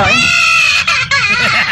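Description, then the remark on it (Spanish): A parrot that has been hit wails like a crying child, a loud, continuous high-pitched sobbing cry with wavering harmonics and two brief breaks, sounding almost human. “Se los juro por mi madre, es un loro. Está llorando como un niño porque ay, le pegaron.”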